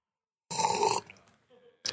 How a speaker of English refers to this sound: I'm gonna speak just a little bit to make sure that I start hearing myself. Um, is it coming through there? Can you hear my slurps?